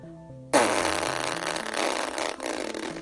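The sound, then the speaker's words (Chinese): A few plucky rising and falling tones give way to a loud, long, raspy fart by the character Kairo during bath time in a children's story, blaring for over two seconds, briefly sputtering before trailing on to the end. “凯罗竟然放了一个大屁。”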